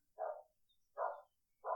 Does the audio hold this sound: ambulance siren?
no